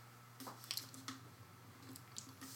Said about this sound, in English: For the folks at home, he just drank his first, first black water first na- water. first goal of black water. Oh jeez. It, it, it tastes like water. It tastes like nothing.